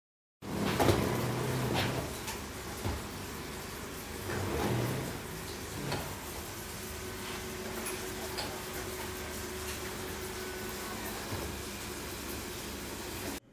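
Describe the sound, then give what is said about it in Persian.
Scratchy, rhythmic swishes of a municipal street cleaner's hand broom sweeping a city street, spaced a second or two apart, over a steady hum of street traffic and passing cars. “هنوز ما در گذر ها و معابر شهر صدای جاری کشیدن آشغانه یک کارگر زحمتکش شهرداری رو میشنویم که ترانه نوستالژیک زیر لب زمزمه میکنه و به عمل نظافت خیابان مشغوله هرچند که شنیدن صدای جاروی دستی در مناظر شهری غیر ممکن شده”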